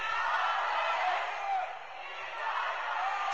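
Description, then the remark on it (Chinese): A steady roar of many residents shouting at once between the apartment buildings of a residential area in Pudong, Shanghai, on 23 April 2022, during the COVID lockdown, a dense wash of overlapping voices with no clear words, dipping briefly midway before swelling again. “这是二零二二年四月二十三日上海浦东区住宅区的楼宇之间的声音。”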